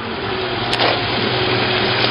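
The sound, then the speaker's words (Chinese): The engine of Li Yutian's car idles after the car stops, with a steady, low rumbling hum and an even hiss of noise over it, broken only by a brief soft knock partway through. No one speaks. “那不是李玉田的车吗？”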